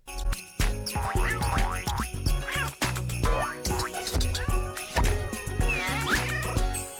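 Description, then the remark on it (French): A bright, busy TV channel ident jingle with tinkling tones and playful, cartoonish animal-like squeaks and sweeps popping up throughout, from animals such as pigs, dogs, snakes, sheep, birds, mice, cats and whales shown in the jingles, loud and continuous with no talking. “Des cochons, des chiens, des serpents, des moutons, des oiseaux, des souris, des chats, des baleines, tous se retrouvent dans les jingles à antenne, dans des petites scénettes où ils jouent entre eux et avec l'enfant.”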